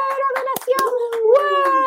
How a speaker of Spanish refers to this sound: Aquí está, bueno, hasta la doctora está aquí aplaudiendo.